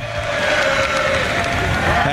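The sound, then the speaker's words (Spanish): A large stadium crowd applauds and cheers for Novak Djokovic's mother, who is in the stadium on her birthday, in a steady, dense roar of clapping that holds level throughout, with a faint sustained tone running through the noise. “Y aplausos para la mamá de Novak.”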